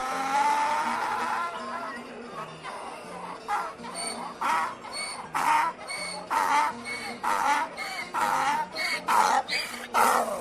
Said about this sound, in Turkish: Biraz gittikten sonra yeniden Turşularım var, leziz enfes turşularım var diye bağırmaya yeltenmiş tam ağzını açacakmış ki daha ilk hecesinde eşek yine uzun uzun anırmış.